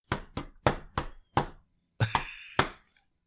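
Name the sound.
knocking on a surface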